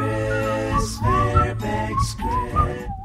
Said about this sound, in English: that that was me whistling.